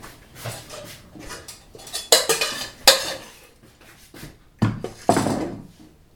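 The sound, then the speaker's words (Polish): A metal spoon scrapes and clinks against a pot while scooping button mushrooms out to spread on pizza dough, with several sharp clattering strikes and softer shuffling in between, with no talking. “Nabieramy z garnka i delikatnie rozkładamy na cieście na wierzchu.”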